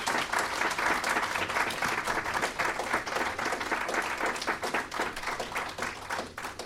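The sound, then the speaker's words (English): An audience applauds a panel of speakers steadily for several seconds, a dense wash of many overlapping hand claps that stays loud throughout and tapers only slightly toward the end. “Uh, so if you can give all our panelists a big round of applause for today, thank you very much.”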